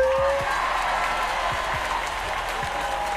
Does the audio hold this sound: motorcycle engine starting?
no